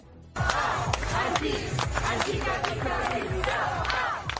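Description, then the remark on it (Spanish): Hundreds of protesters in Hamburg, Germany, during the G20 summit shout and yell all at once, a dense, loud roar of many voices with sharp cries and bursts rising out of it, sustained without pause. “Son los gritos de los centenares de personas que protestan en estos momentos en la ciudad alemana, mientras unos 20.000 agentes velan por la seguridad de los participantes del G20.”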